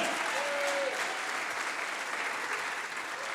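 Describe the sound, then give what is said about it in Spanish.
An audience claps for God, steadily and densely throughout, a continuous wash of many hands with no pauses, fairly loud and even, with a brief faint whistle-like tone early on. “Dele palmas al que vive.”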